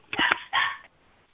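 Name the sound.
small dog barking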